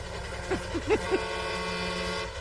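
Four short horn honks in quick succession, bright and fairly close, sounding over a steady low engine-like rumble, then the rumble continues on its own.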